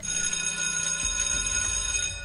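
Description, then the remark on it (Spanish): A school buzzer rings loudly in the schoolyard without a break for just over two seconds, a harsh, shrill, steady tone with a low rumble beneath it and no voices. “Tronó la chicharra en el patio.”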